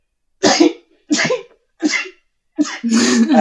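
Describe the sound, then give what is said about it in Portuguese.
A quick run of four sharp sneezes separated by brief pauses; the last one is longer and more voiced, trailing into a throaty exhale. “eu não espirrei no ouvido do Geraldo.”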